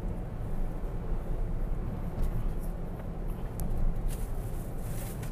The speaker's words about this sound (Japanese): また国道163奈良方面四条七手方面に向いて今走っている最中です